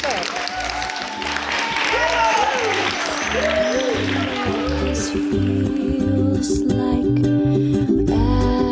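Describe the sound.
An audience bursts into sustained applause, a dense, steady wash of clapping hands lasting several seconds, with voices murmuring and calling out underneath.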